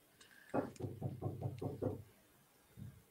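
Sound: knocking on a door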